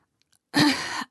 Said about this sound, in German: Sie räuspert sich.